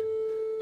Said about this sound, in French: ça sonne. Est-ce qu'on entend en régie Est-ce qu'on attend Je vais voir. Est-ce que ça sonne On va voir s'il nous répond ou pas.